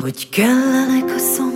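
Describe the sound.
A song plays loudly with a sung vocal: a short sung phrase opens, then the singer holds one long, steady note through the rest, with bright accompaniment shimmering near the end.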